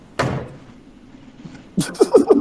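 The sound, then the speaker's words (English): A single heavy door slammed shut by Kanye with a sharp, loud bang that rings out and fades, followed moments later by a burst of loud laughter. “I understand you rich, but if you ever slam a door like that, that goes up suicidal like that again.”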